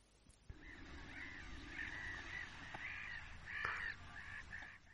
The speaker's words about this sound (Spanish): Ese sonido era una bandada de patos cuchara posándose sobre la laguna.